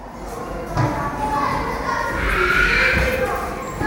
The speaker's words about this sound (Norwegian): Det er fredag formiddag på Marienlyst skole i Oslo. Barneskoleelevene skråler og tøyser og henger sammen i gangene i friminuttet.